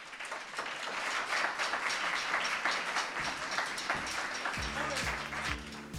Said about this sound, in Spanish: Chicos, un aplauso, pero esta vez para vosotros.